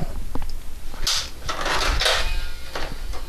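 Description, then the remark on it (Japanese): An Excitebike game cartridge with poor contact is pushed and wiggled into a console slot, giving a few scraping plastic slides and soft clunks over about two seconds, with no talking. “接触悪いよ。接触悪いな。テクニックいるな。”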